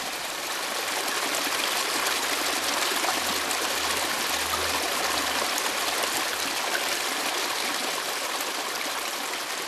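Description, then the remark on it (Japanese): Raw spring water, known as Gorogoro water and about 10 degrees year-round, gurgles and burbles steadily from its source, a continuous rush of flowing water with a soft low rumble underneath, unbroken throughout with no voices. “確かにゴロゴロゴロって言っているような感じもするまあ癒し系の音ですね”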